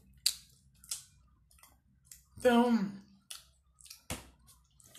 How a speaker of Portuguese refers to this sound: desculpa de, né, o som de mastigação.